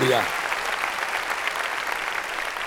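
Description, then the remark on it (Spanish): An audience claps loudly and steadily in praise of the Lord, a dense wash of many hands sustained throughout, with a brief voice at the very start. “Démosle palmas fuertes a nuestro Señor.”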